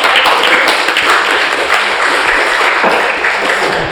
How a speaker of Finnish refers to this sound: Pienen aplodin. Joo.